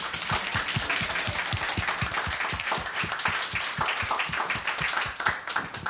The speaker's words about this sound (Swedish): En stor applåd igen